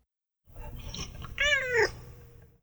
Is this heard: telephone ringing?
no